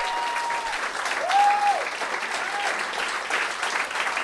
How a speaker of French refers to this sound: Puis euh, avant de commencer, j'aimerais ça qu'on donne bonne main d'applaudissement au monsieur qui est juste là,